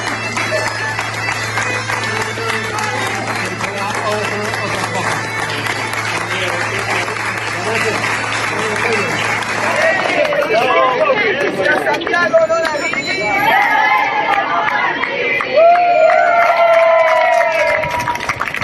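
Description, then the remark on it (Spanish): A crowd applauds and cheers continuously as pilgrims arrive in Santiago accompanied by Guardia Civil agents. Dense clapping with shouts and babbling voices grows louder and more excited in the second half, with a few higher whistles or calls rising above. “Bueno, vamos a escuchar cómo era la, la llegada de estos peregrinos acompañados por agentes de la Guardia Civil a Santiago.”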